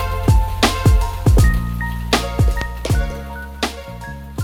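A band's song plays loudly, driven by punchy, booming drum hits every half second or so over a steady bass line and sustained synth-like tones, with no voices.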